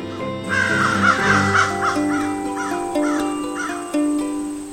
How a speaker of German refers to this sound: Welches Tier suchen wir? Ich sag es dir. Es ist die Krähe.